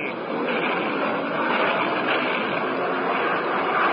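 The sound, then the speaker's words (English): A steady, loud drone of a propeller aircraft engine fills the whole stretch, constant, with a rough rumbling texture and no pauses or voices. “A bandit at 11 o'clock, an unidentified plane.”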